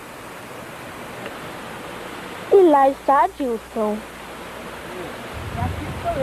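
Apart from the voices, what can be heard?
waterfall rushing water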